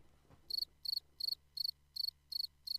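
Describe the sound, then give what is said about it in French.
A cricket chirps steadily and alone, sounding about seven evenly spaced, high-pitched trilling bursts, each made of rapid pulses, over a faint low background hum. “Ici, on peut ajouter un bruit de criquet.”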